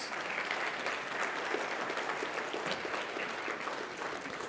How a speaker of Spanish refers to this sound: Vamos a ponernos de pie, vamos a orar. Y demos un aplauso fuerte al Señor. Vamos.